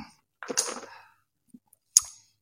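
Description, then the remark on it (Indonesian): An airy slurp of someone sipping a cup of hot coffee, followed by a couple of faint mouth clicks and a short, sharp breath at the end. No one speaks. “Sebelum kita berkenalan langsung dengan empunya tempat ini, si foundernya, saya mau menyeruput kopi saya dulu.”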